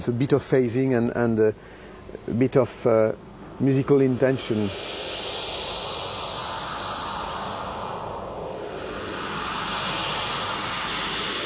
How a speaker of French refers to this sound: Like that, or like a white noise, kind of boring white, white noise. Uh, On peut faire des sons intéressants musicalement.